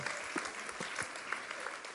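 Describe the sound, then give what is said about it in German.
An audience claps to greet visitors from Studenten für Christus in Karlsruhe, a steady, dense patter of many hands, a bright crackling texture that holds at an even level throughout without voices rising above it. “Hallo, alle klatschen, genau.”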